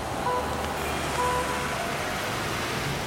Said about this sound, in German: Am Straßenrand stehen Dutzende Menschen und winken Busse heran. Die rasen vorbei, halten quietschend, rattern los.